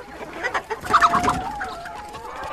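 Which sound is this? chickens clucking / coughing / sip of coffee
chickens clucking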